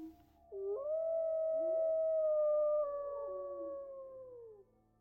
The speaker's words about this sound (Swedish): Båda barnen började skrika och gråta men ju mer de skrek, desto närmare tjöt vargarna runt omkring dem.